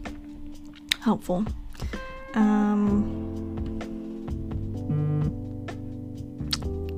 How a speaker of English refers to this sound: sorry if you heard that buzz, that's my phone.